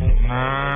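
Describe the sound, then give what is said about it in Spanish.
A cow gives one short, deep moo, fairly loud, with a buzzy, steady drone and no voices over it. “¿Quieren oír la vaquita?”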